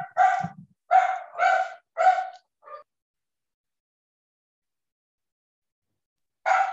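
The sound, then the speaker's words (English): A dog barks in a quick run of four or five sharp barks, then falls silent for several seconds before one more bark breaks out at the end. “Oh yeah, uh, that that's my dog.”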